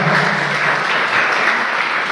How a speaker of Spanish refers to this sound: Muchas gracias. Gracias, denle un fuerte aplauso.